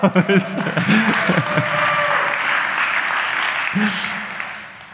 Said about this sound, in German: Ja, eine Person weiß es. Das ist immerhin Applaus.